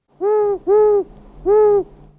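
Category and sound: bird, tawny owl hooting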